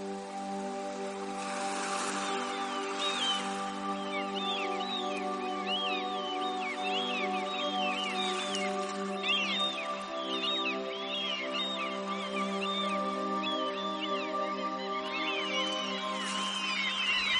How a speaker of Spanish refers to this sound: Eh, el, ruido de los pájaros, las gaviotas en este caso, en la playa. Y las olas que rompen despacito en la orilla del mar.